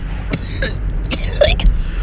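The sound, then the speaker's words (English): A person coughs about four times after taking a deep hit. The coughs are harsh and raspy, in close succession and loud, with a steady low background rumble. “You don't get off till you cough.”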